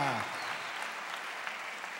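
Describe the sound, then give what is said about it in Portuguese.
An audience at a Quadrangular church 67th anniversary celebration applauds steadily, a dense wash of many hands clapping at an even, fairly loud level throughout, with a brief voice-like murmur at the very start. “Com você somos uma família, vamos aplaudir.”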